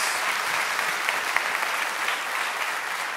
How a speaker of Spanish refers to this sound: Dele fuerte ese aplauso, hermano, al Señor.